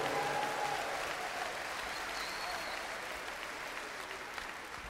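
Steady audience applause fills the whole stretch, a dense wash of many hands clapping at an even, sustained loudness without letting up.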